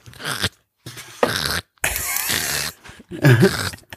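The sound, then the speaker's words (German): A voice imitates the scratching of wasps inside the ceiling of an office, from a wasp nest under the roof: four short, raspy, crunchy bursts separated by brief silences, fairly loud, with no actual words. “Und ich weiß noch, bevor wir in Urlaub gefahren sind, habe ich immer so ein, so ein”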